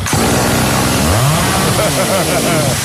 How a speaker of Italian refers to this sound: Vuoi fare a pezzi tua suocera ma la motosega non parte?